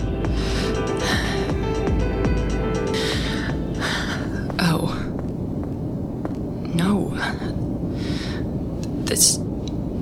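heavy breathing

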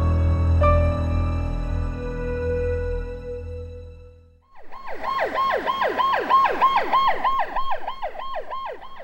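ambulance siren

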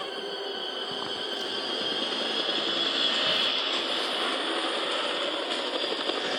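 helicopter flying

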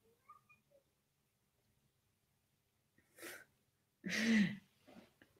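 cat meowing

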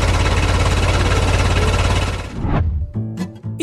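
car engine running

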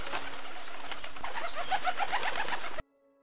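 pigeons cooing

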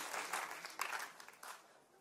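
applause

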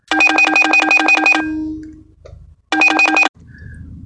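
phone ringtone

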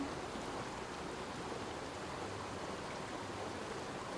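babbling stream water

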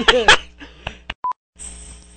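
telephone keypad dialing tones

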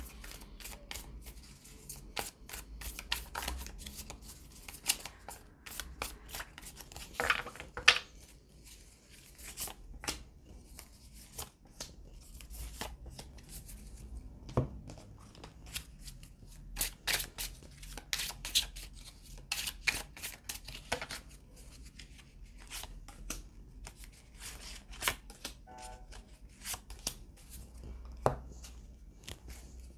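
tarot cards being shuffled

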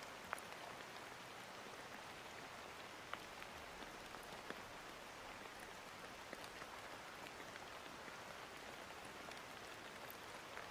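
rain falling

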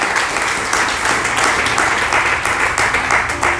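audience applauding

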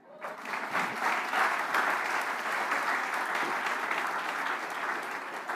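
audience applause

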